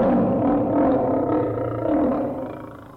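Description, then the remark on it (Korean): A deep, sustained tiger roar rumbles loudly for about three seconds, swelling slightly mid-way before trailing off, with no voices alongside it. “오, 어, 호랑이 소리가 들리네.”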